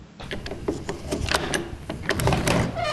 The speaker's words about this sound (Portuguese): Tão, tão, tão batendo na porta aí? Pera aí que eu vou abrir aqui, rapidão.